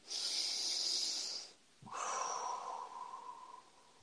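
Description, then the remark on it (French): One deep breath taken between spoken affirmations, with no talking: a long, airy inhale for about a second and a half, a brief pause, then a slower, breathy exhale that fades out gradually. “Alors on va dire d'autres affirmations, une respiration.”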